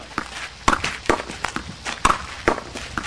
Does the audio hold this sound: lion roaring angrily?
no